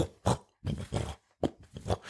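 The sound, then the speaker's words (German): A voice imitates the arm movement sounds in the VR game Horizon Worlds for PlayStation, which differ with fast or slow arm movement: four breathy whooshing and grunting bursts of varying length, some short and some drawn out, separated by brief pauses and no actual words. “Da haben tatsächlich sogar deine Armbewegungen unterschiedliche Geräusche. Also je nachdem, ob du schnell oder langsam deinen Arm bewegst, hörst du so.”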